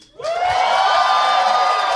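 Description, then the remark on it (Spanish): A full-house live audience at the Caja Popular in Querétaro erupts into loud, sustained cheering and applause for a guest after a brief quiet moment, with whoops and shouts blending into a dense, steady roar that carries on to the end. “y hoy en la silla embrujada, un aplauso muy grande, por favor, ¡Uh!”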